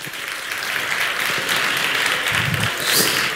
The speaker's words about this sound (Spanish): Antes de empezar con nuestra gala maravillosa, quiero agradecer, por supuesto, a las marcas que están apoyando, que en este caso en los premios son Neto, Juguetos, eh, la Clínica Eugene, Goco, SM, Spreaker y Witaka e IKEA. Un aplauso.